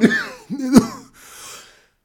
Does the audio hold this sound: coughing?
yes